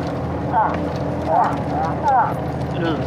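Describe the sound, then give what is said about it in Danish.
A voice imitates a nasal, croaking animal call, like a mix of a frog and a raven, repeating it four times in a steady rhythm, each short honk fairly loud against a low background rumble. “Ja, det var sådan en blanding ja. af en... Øh noget, noget, en, frø noget, eller en noget, øh, ravn. Noget nasal ravn i hvert fald.”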